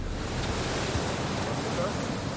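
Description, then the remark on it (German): Steady, loud rush of churning water pouring out of the outlet of the Bottrop 2 pumping station on the Emscher, where water is lifted about 20 metres and runs into a channel to the sewage plant, a dense continuous roar with some wind buffeting the microphone. “Das ist der Pumpwerksauslauf. Das heißt, das Wasser fördern wir ja hier rund 20 Meter hoch.”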